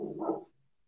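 A single short bark from a rescued dog in the background, muffled and fairly faint, followed by quiet. No one speaks.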